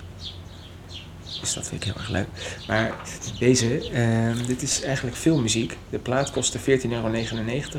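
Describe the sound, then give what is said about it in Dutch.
Faint bird chirps and tweets twitter in the background on a sunny 23-degree spring day, mostly buried beneath a man talking into the microphone throughout. “Je hoort de vogels op de achtergrond.”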